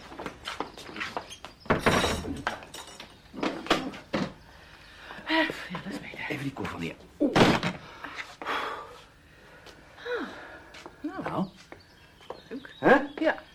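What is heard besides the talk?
doors being closed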